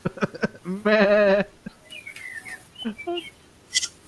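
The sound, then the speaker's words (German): A woman imitates a goat's bleat, giving one loud, quavering cry of about half a second. Short clicks come before it, and faint chirpy squeaks follow. “Sie macht wie so eine Ziege.”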